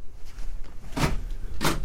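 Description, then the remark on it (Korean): A front door being opened: two short, sharp mechanical clunks about half a second apart, like a latch releasing and the door swinging, over a quiet background. “아버지 이름을 정확히 댔기에 나는 확대경으로 요상한 차림의 노파를 한 번 더 들여다본 다음 아무 생각 없이 문을 열었다.”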